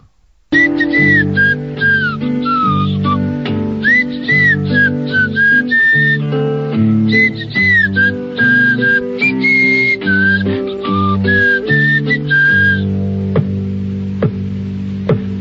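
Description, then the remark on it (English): A bright, clear whistled melody carries a jaunty tune over steady instrumental backing, loud; it is the song that opens a 1960s motion picture. The whistling stops near the end while the accompaniment keeps playing. “Here he is, … and …”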